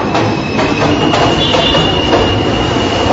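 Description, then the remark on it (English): A loud, continuous roar of an elevated subway train at the Myrtle Broadway station rumbling past close by, heard from inside an apartment with the windows closed, with rhythmic wheel clatter and a steady high metallic whine over the top; no one speaks. “This is the uh, Myrtle Broadway station.”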